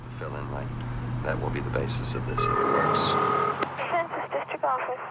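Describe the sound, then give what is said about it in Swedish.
A steady low engine drone of car traffic hums beneath tinny talk-radio voices, the rumble dropping away halfway through while the radio chatter continues at moderate volume. “För att man, det är så behagligt också med soundtracket som bara är talk radio och, och trafikljud.”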